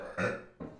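A short burp or sneeze bursts out loudly, followed a moment later by a second, softer burst, with no talking around it.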